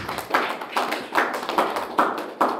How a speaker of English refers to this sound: Come on, give a clap of it to Jesus.